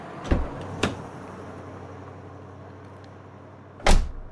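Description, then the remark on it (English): A car door clicks open and thunks shut, followed a few seconds later by another solid slam, with a low steady hum in the background and no talking. “Now, please, get in the car.”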